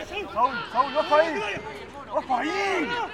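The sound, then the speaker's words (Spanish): Players' shouts and calls echo around an empty stadium during a televised football match played without fans, who were not allowed in during the pandemic, with no crowd noise, just scattered voices rising and falling over a quiet, hollow background. “Pero luego de haber estado parado todo durante mucho tiempo por la pandemia, pudimos volver a ver un partido de fútbol por televisión, porque a la cancha no se podía ir, y pasamos a escuchar esto.”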